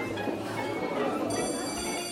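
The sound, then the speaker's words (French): A busy café terrace hums with steady overlapping crowd chatter, no single voice standing out, while dishes and glasses clink now and then against the constant murmur. “Vous m'avez répondu le brouhaha des terrasses, des restaurants,”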